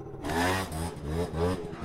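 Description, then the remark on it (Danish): A small black motor scooter engine revs and buzzes, its droning pitch rising and falling as it pulls away. No voices are heard. “Nå, nu øh, kører den væk på sin sorte scooter.”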